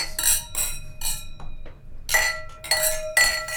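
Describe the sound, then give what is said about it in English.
Several bright glass clinks ring out in quick succession, each leaving a high, sustained shimmer, as wine glasses holding a Great Southern, WA wine are touched together in a toast, fairly loud with no talking. “So, Cheers.”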